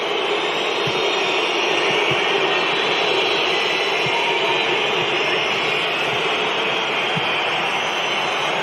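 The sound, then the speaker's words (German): A stadium crowd whistles en masse through a football match between Germany and Turkey at the Olympiastadion in Berlin, Germany, with Germany leading 1-0 around the 20th minute: a dense, steady, shrill wash of sound that never lets up, with no single voice standing out. “Nochmal, das sind keine Pfiffe, weil die enttäuscht sind vom Spiel oder so.”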